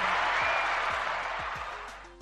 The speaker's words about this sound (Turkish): Seni şöyle bir alkışlayalım. alkışlayalım. Ben sizi evet, alkışlıyorum.